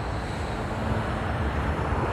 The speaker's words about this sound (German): Es ist der 29. Oktober 2018 und im indonesischen Jakarta hat der Lion Air Flug 610 vom Tower die Startfreigabe erhalten. Im Cockpit dieser 737 MAX drückt der Kapitän den Take-Off-Knopf und die Triebwerke erwachen zum Leben.